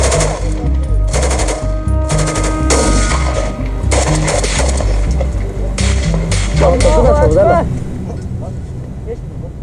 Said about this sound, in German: Da war ein Gehöft, das war mir persönlich komisch. Alle Leute waren weg. Ähm, es war auf einmal windstill gewesen. Und dann gingen auch schon die ersten Schüsse los.